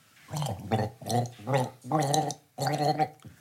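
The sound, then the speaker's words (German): Someone gargles the melody of a children's song, producing about six bubbly, wet voiced bursts with short pauses between them, fairly loud, with no talking over it. “Ich meine, gurgeln. Nur die Melodie gurgeln.”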